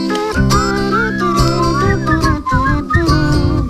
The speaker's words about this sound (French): Allez, pour celui-là, ah, on, siffle tous ensemble.